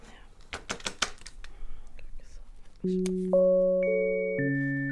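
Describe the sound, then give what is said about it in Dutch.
Crisp crinkles and soft creasing of a tiny piece of paper being carefully folded by hand so that it looks like a slept-in sheet for a miniature paper bed, with a few sharper rustles, before steady sustained musical tones come in and take over. “Ik zie hoe ze heel zorgvuldig een mini stukje papier op zo'n manier vouwt dat het een beslapen laken lijkt.”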